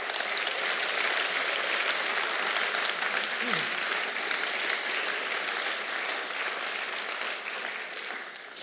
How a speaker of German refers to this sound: Und wenn du dich traust, dass du jetzt mal allen Frauen, die in dieser Kirche mit Hauskreis, mit Kleingruppen, mit Gemeindeleitung, mit Ältestenschaft unterwegs sind, gib denen doch mal einen Applaus, wenn du dich traust.